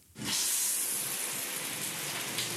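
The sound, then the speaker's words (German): A shower starts abruptly and then runs steadily, a dense hissing spray of water that keeps up at an even level with no voices over it. “Eine Schweineüberleitung hier zur Dusche?”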